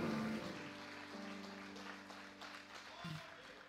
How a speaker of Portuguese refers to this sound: Você pode aplaudir ao Senhor, aleluia.